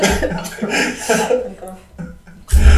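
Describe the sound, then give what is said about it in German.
A person coughs hard and repeatedly after choking on a drink, a ragged series of harsh, throaty bursts with strained breaths between them, ending in a loud, forceful cough. “Kannst du wieder atmen?”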